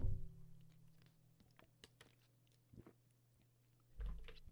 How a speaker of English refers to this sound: Uh, yeah, man. Fuck my throat. Taking a sip of water.